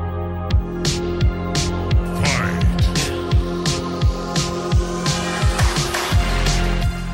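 A pop song played as the first option in a radio guess-the-song segment plays loud and full, with a steady driving drum beat, punchy bass, and bright synth chords repeating throughout, with no talking over it.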